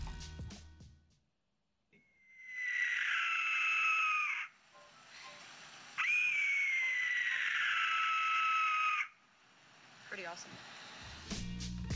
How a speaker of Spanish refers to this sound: Se sabe que puede causar incluso alucinaciones de, eh, o sea, sin drogarte. O sea, dos silbatos de estos al mismo tiempo sonándote cerca te pueden llevar a alucinar. Y ahí les va cómo suena un silbato de la muerte azteca.